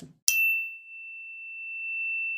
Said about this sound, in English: after every client i clear my room i clear my space i have a beautiful little angel fork that i use um, and it makes a lovely sound